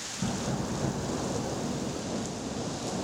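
Steady rain pours down continuously in Prague on a Thursday in September 1938, a dense hiss with a low rumbling undertone like thunder, filling the whole recording without pause.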